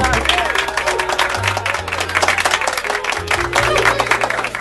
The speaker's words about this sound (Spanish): Fuerte el aplauso.